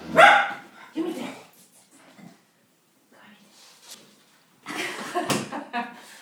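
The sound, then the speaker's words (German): A dog barks loudly in a room in short bursts, a few sharp barks at the start and another cluster near the end, with quieter rustling in between. “Unterbrechung, ich musste aufstehen und den Hund aus dem Zimmer verbannen, denn wir reden über Hunde, aber ja, doch, ein bisschen dürfen sie mitreden.”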